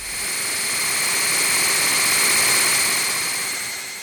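Electronic noise music from a Moog synthesizer: a dense, steady roar of hiss with several sustained high whistling tones layered over it, swelling in quickly and holding loud with no voices.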